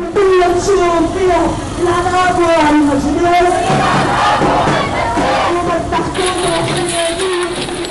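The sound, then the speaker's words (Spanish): A crowd of protesters, hundreds of women wearing the white, red and green cedar flag, chants loudly in unison as they march through the streets of Beirut, many voices rising and falling together in a steady, rhythmic call, with a dense, continuous roar of shouting underneath throughout. “Ahora son menos, aunque sus voces no se han desgastado.”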